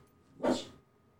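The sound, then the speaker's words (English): A single sharp dog bark, short and fairly loud, rising out of near silence and fading quickly, with no talking around it. “Rat of a dog.”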